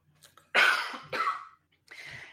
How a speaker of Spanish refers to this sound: y nada, pues eso, aquí como estamos en directo, hay que toser en directo, así que te dejo a ti seguir